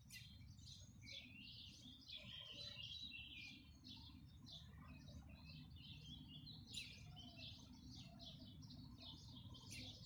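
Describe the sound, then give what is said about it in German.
Morning courtyard ambience on 24 April: many birds chirp and trill continuously in overlapping high-pitched calls, over a steady low rumble of background noise, with no talking. “Vierundzwanzigster Vierter Blick in den Hof in der Früh.”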